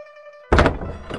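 A woman knocks on the front door of a family's house: a few dull, thudding knocks, a quick pair followed by a softer single knock, breaking in after a steady low tonal hum.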